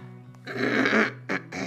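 human body sound, throat clearing

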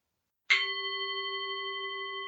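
gong being struck

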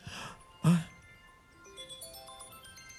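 signal or alarm, mobile phone ringtone

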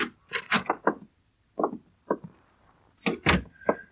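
household object, door opening

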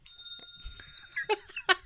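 signal or alarm, bell ringing

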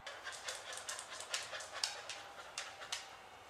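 animal, dog panting

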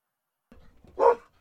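animal, dogs barking

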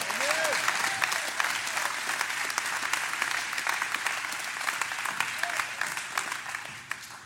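crowd, audience clapping hands

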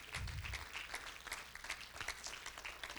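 crowd, audience hand clapping

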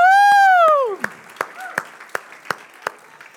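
crowd, audience applause and cheering

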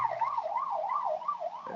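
vehicle, ambulance siren

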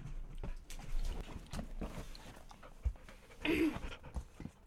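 animal, dog panting

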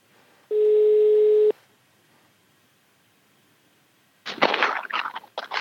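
signal or alarm, telephone ringing tone

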